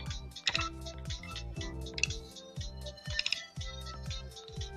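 Rapid, uneven clicking from a computer trackball mouse, moderately loud, with sharp plastic clicks repeating over a low steady background hum. No one speaks.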